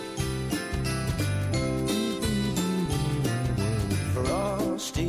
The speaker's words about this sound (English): There's those jingle bells.